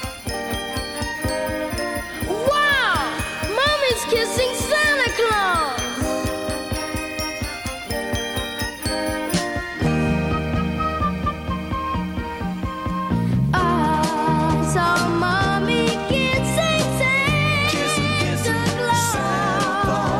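An upbeat Christmas pop song by a family band plays loudly throughout, with a steady bouncing beat, bright jingling bells and a youthful lead voice singing over layered backing harmonies.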